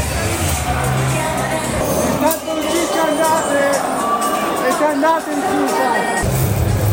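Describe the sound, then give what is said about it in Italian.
A crowd of agitated Pisa football fans shouts and jeers at journalists following Spezia, overlapping in a loud, continuous hubbub with occasional sharper yells rising above the din. “tifosi del Pisa si arrabbiano con i giornalisti al seguito dello spezzo.”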